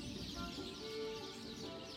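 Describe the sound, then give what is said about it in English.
A dense chorus of jungle birds shrieks and calls together as the skies darken at the start of a total solar eclipse, a steady, loud wall of overlapping cries with no pauses and no voices. “Right on cue, the skies begin to darken, and the jungle fills with the shriek of birds, panicked by the sudden gloom.”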